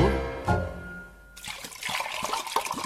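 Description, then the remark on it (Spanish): A fading musical tone gives way to freshly heated water being poured, a steady splashing, gurgling rush with small irregular bubbling bursts that continues to the end. “Ya calentamos más agua.”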